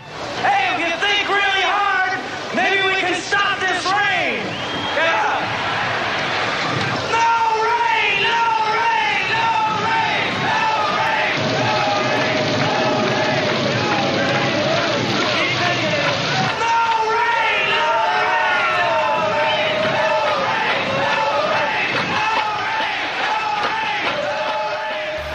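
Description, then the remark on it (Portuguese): A huge outdoor music festival crowd chants together in unison to make the rain stop, called on by master of ceremonies Chip Monk; loud and sustained for the whole stretch, countless overlapping voices swelling in a dense roar. “Chip Monk, o mestre de cerimônias e apresentador, convoca a plateia a fazer uma vibração para a chuva parar.”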